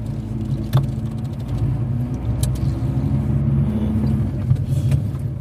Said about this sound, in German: Da vorne fährt ein Auto.